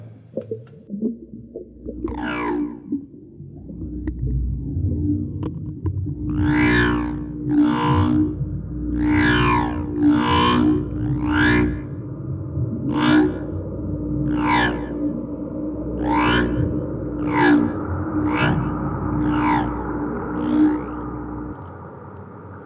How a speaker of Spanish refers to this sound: La presión a estas profundidades empezaba a ejercer tales fuerzas sobre el batiscafo que en el interior de este se podían escuchar los sonidos de metal siendo moldeado.